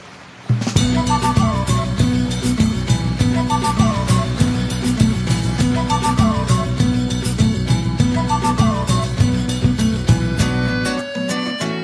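A song plays at full volume with a steady, driving beat and layered instruments, starting abruptly and cutting off just before the end, with no talking over it.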